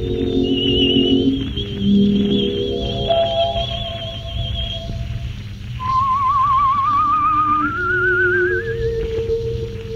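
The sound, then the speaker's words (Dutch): A man whistles a song, a wavering melody with gentle vibrato drifting over a full, sustained musical backdrop, rising slowly in pitch toward the end and sounding deeply wistful yet light and hopeful. “Hij vloot het met klanken die diep weemoedig waren, maar tegelijkertijd licht en hoopvol.”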